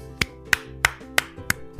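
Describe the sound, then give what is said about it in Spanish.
Five crisp, evenly spaced claps ring out in a steady rhythm, like a single person applauding, given for doctors, parents and medical staff, over a faint sustained tonal hum underneath; no one speaks. “muchas gracias, un fuerte aplauso”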